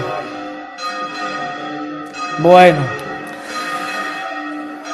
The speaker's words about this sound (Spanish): En un pueblo denunciaron a la iglesia por el tema de las campanas